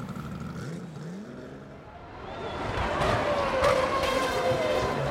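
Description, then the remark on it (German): Car engines rumble and rise in pitch as dozens of vintage Ferraris roll over the cobblestones of the Piazza Grande, past the Romanesque cathedral, celebrating Ferrari's 60th anniversary; the roar builds louder through the second half with a whining engine note and steady road noise. “Es sind Dutzende Oldtimer, viele davon unbezahlbar.”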